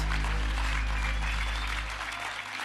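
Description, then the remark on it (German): An audience at a church applauds the band steadily, a dense wash of many hands clapping at an even loudness for a few seconds, with a low hum underneath and no one speaking. “Habt ihr einen Applaus für die Band?”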